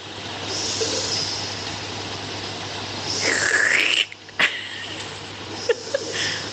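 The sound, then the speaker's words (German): A machine runs with a steady, noisy whir over a low hum, then makes a warbling sucking sound as it draws up and slurps water, followed by a few short knocks. “Irgendwie zieht er sich jetzt hier anscheinend das Wasser und schlürft es richtig aus.”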